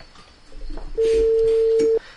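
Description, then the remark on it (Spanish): A phone's ringback tone sounds once as a call to the speaker's father's cell phone waits to be answered: a steady, flat electronic hum lasting about a second, loud, following a moment of faint background noise and ending abruptly. “Ahí está, aguantando la llamada.”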